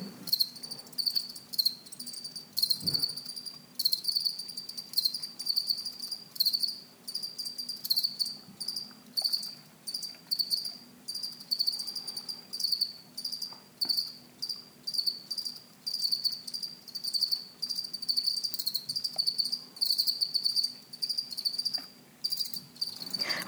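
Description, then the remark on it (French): Two crickets in a school biology laboratory chirp steadily in high, shrill pulses, overlapping in a continuous rhythmic trill, recorded indoors on a day that was not very warm, with no voices. “Voici un, enregistrement effectué dans le laboratoire de SVT du CIMF. À l'écoute, on semble dénombrer deux grillons.”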